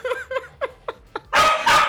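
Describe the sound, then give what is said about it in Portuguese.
A dog barks five times in quick succession, short sharp yaps at a steady pace, followed by a louder, rough burst of noise that swells at the end. “É só o falar dela que o cachorro dela começa a latir, mano.”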